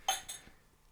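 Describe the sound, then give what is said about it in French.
Small champagne coupes clink together twice in quick succession, bright ringing tones that fade away quickly, followed by quiet. No one speaks. “Donne ta coupe. On a eu des petites coupettes.”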